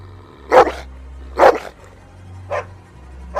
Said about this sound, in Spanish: Los perros desesperados aumentaban el volumen de sus ladridos porque se estaban muriendo de hambre.